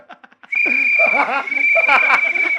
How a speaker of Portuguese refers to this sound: é boa ideia do apito do assédio. É muito bom.